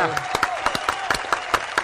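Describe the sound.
A few people clap in a quick, slightly uneven rhythm, applauding a group of people and their bosses; the sharp claps are fairly loud, with a faint voice murmuring underneath.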